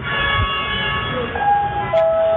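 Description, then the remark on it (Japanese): A maglev train slowly glides into the station with a steady electric hum, and high whining tones step upward as it arrives. Smooth and fairly quiet, with no voices. “さあ、リンゴがやってきました。”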